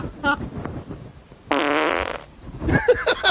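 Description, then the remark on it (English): A loud fart sound effect: a sustained buzzy, rippling blast lasting under a second, surrounded by shorter sputtering bursts and some faint vocal noise. “that was Doug TenNapel, the fart”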